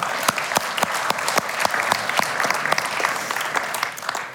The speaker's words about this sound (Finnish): Annetaanko itsellemme ja toisillemme vaan aplodit tässä kohtaa?